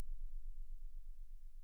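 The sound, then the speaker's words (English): A steady, very high-pitched 15,000 hertz test tone holds at one constant level for under two seconds, thin and piercing, with nothing else around it. “Here's 15,000.”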